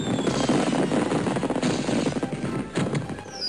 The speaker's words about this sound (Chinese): 云霄飞车的车厢后面一接收到了魔法，就开始喷出烟火。七彩的星点和亮粉在空中嘶嘶作响，非常壮观。